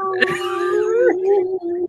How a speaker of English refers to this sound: These dogs over next door. They're German shepherds and they're so annoying.